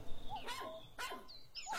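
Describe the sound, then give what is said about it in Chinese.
A funny small dog that can dance on its hind legs yips and whines in three quick, high-pitched bursts, the calls rising and falling in pitch with brief pauses between them. No one speaks. “哦，神父，快来看看这只滑稽的小狗，它能颠起后腿跳舞呢。”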